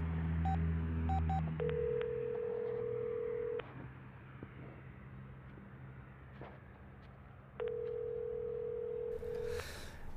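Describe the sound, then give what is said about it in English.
A handful of quick keypad beeps as a number is dialed, followed by a steady telephone tone that cuts off, then returns after a pause, over a low background hum. “I'm trying to make some phone calls here.”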